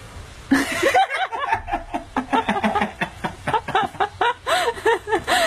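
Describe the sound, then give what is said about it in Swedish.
An orangutan laughs in a long run of quick, breathy, voiced bursts, fairly loud. The rhythmic chortling sounds strikingly like a young woman giggling, with no talking over it. “ta den där eh, videon på orangutangen där”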